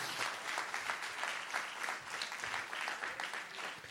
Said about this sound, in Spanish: alguien que le dé un aplauso, alguien que lo reciba.